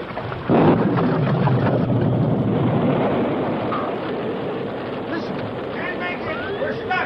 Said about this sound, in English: It's a cloudburst. The river will be over our heads.